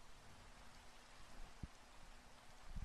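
rain falling

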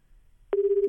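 telephone ringback tone

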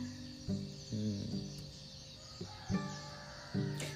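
small birds chirping

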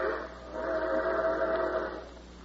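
train whistle

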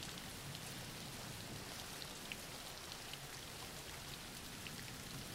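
rain falling

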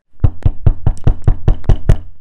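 knocking on a door

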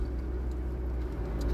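car interior road noise

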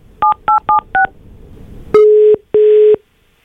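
telephone keypad dialing tones

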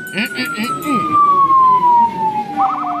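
police siren wailing

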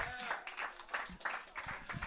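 audience round of applause

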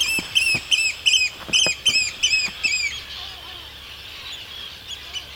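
oystercatcher calling

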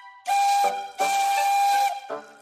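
steam engine whistle

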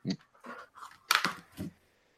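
dog barking

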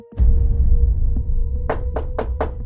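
knocking on a door

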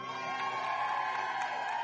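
audience applause and cheering

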